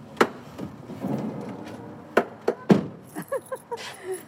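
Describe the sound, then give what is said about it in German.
Keys jangle and clink in a few sharp, scattered bursts amid quiet rustling while someone searches for a key, with a faint murmuring voice toward the end. “Also gut, schauen wir mal, den Schlüssel müssen wir erst finden.”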